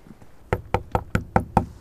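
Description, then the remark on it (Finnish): Six evenly spaced knocks on a solid log wall of an old house, knocking to check the logs for rot, fairly loud, each a dull wooden thud with a brief sharp attack, in a quick steady rhythm with no talking. “Tässä voi vähän koputella hirsiseinää.”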